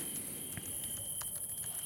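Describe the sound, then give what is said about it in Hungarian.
Soft, quick keyboard clicks as someone types a reply to a listener's question, tapping out in an uneven rhythm, with a steady high-pitched hiss running underneath and no voices. “Hall, hallatszik ám, hogyha gépelsz.”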